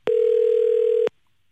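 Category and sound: signal or alarm, phone call ringing tone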